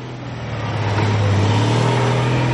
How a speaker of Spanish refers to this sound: En una calle, un autobús se va.